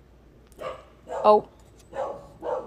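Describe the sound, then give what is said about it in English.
A dog named Bruno barks four times in a steady, spaced rhythm, the middle bark sharper and louder, with a brief spoken word from a person in between. “if you guys can hear that, that's Bruno barking.”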